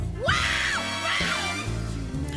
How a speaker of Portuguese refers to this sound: Olha que grito, minha gente